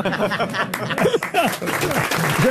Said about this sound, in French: Vous pouvez applaudir Marc-Antoine Lebré, bien sûr.